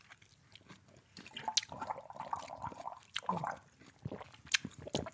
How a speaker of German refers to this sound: Ich nehme auch noch ein Schlückchen.